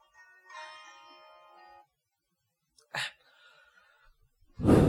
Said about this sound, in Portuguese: Respirando, respirem comigo.